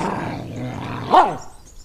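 A single sharp dog bark rings out near the end, loud, after a low rumbling growl-like stretch beneath steady background noise; the dog has found someone hiding behind a garbage bin.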